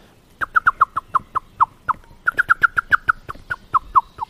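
A male blackbird's sharp, repeated alarm call as a cat approaches the nest, protecting the female and young: two rapid bursts of loud, metallic clicking chinks, slowing slightly at the end of each run, with no voices present.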